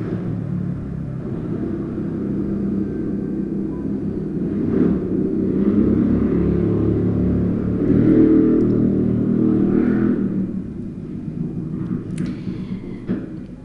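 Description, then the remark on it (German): A loud motorcycle engine rumbles, growing louder as it drives past and revving around the middle, then fading off toward the end. No one speaks. “Ja, ich warte, bis das Motorrad vorbeigefahren ist.”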